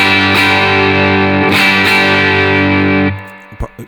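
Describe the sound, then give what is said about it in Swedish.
An electric guitar played with a clean tone through a clean boost pedal rings out loud, a few strummed chords sustaining for about three seconds before being cut short, followed by a couple of soft muted plucks. “Nu kör vi i alla fall clean boost då.”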